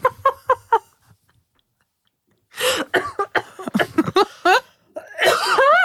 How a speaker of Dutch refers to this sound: Klein intermezzo voor mijn hoest.